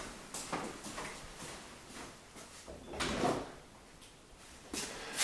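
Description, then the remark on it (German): A door is opened to let a cat out and then pushed shut, with a few sharp knocks and rattles of the handle and frame, the loudest thud near the end of the sequence. “Ja, dann lassen wir die schnell wieder raus, die Katz.”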